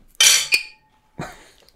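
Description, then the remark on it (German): Glasses of non-alcoholic beer clink together in a toast, a bright knock with a short ringing tail, followed by a second softer clink a moment later. No one speaks. “Eigentlich müssten wir erstmal anstoßen hier mit alkoholfreiem Bier.”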